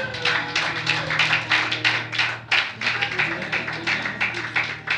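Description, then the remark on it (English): A crowd applauds steadily for several seconds for a minister's birthday, dense overlapping claps forming a loud, continuous patter with a faint low hum underneath and no voices. “Let's clap for him.”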